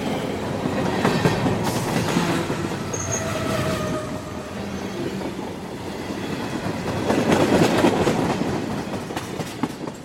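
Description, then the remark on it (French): A train rumbles past a level crossing steadily for about ten seconds, a dense mechanical roar with rhythmic clatter of wheels on rails and brief high squeals, swelling louder toward the end. No one speaks. “Mais un passage à niveau s'interpose entre la voiture et les poursuivants.”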